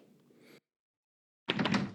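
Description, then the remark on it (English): A door thuds heavily as someone pushes against it though it has to be pulled, a loud knock-like impact that follows a moment of near silence and a faint low rumble. “Having some issues with the door again. You have to pull.”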